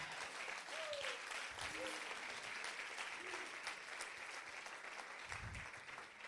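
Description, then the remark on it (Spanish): An audience applauds the Lord, a dense wash of clapping that holds for several seconds, with a few faint voices calling out beneath it. “Vamos, den un aplauso fuerte al Señor.”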